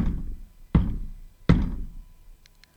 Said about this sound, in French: Elle traverse un pont de pierre et frappe timidement la porte.